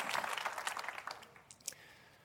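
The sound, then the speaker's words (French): An audience applauds, a dense patter of many hands clapping that is fullest at the start, then thins out and fades within about two seconds, with no one speaking. “Et ça, ça mérite un amen et une bonne main d'applaudissement.”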